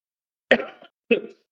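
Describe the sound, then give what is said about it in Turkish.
Two sharp coughs from a person who is ill, separated by a brief pause, each a sudden harsh burst that trails off quickly, with silence around them. “hemen ilk öksürükten sonra söyleyeyim hastayım.”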